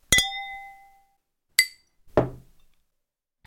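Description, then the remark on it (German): Wine glasses clink together in a toast, one bright ringing chime that lingers for nearly a second, followed by a few shorter taps and a duller knock, with no talking. “Und ich finde, als Dank können wir hier mal ganz offiziell auf ihn trinken.”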